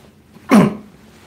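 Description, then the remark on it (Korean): A single short, fairly loud throat clearing, a gruff burst lasting about a quarter second before fading into quiet. “헛기침 한번 하고 너희들이 메이저리그를 아냐?”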